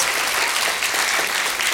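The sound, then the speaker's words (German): Dense, steady applause from an audience, a continuous crackle of many hands clapping at once with no gaps, sustained at an even loudness throughout. “ich kann mir schon vorstellen, wenn, du, wenn man uns nicht kennt und wegen sowas klatschen die Leute.”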